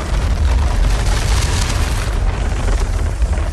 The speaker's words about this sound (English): You know, in the the Peter Jackson uh, mm-hmm. trilogy, Lord of the Rings. Whenever the Balrog roars, like it's not really a roar; it's the sound of this raging furnace.